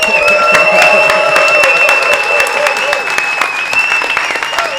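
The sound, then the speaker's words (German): A live audience at an event bursts into sustained applause and cheering, dense clapping filling the whole stretch with whoops and shouts rising over it, loud throughout. “Und liebe Crowd, wie hat es euch gefallen? Make some noise!”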